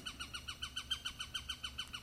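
A Eurasian sparrowhawk calls in a fast, steady series of about fourteen sharp, high notes, each slurring downward, forming a loud, insistent chatter with no voices.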